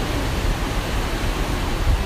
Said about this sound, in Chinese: 阿拉现在就坐了搿个巴东海滩个搿个沙滩高头，对伐？夜到头，但不不过搿搭灯光还是还蛮大个，看得到搿个浪哦。嗯，海风吹吹还是蛮适意个。好，拨大家听听搿个海大海的声音，对伐？